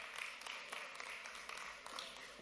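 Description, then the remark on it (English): A crowd gives a hand clap for the Lord, with dense overlapping hand claps forming a steady wash of sound that holds evenly for a couple of seconds, fairly soft and without any voices. “Let's give the Lord a hand clap.”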